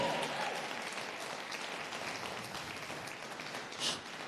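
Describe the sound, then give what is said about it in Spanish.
An audience applauds steadily, a dense wash of many hands clapping at once, sustained, with a brief swell near the end and no clear voices on top. “Vamos, alguien aplauda, grite, pellizque, patee, haga algo.”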